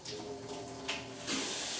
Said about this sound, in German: Und ich mache schon mal das Wasser in die Karaffe dann rein.